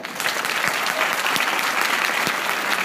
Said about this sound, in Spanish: un aplauso para ella.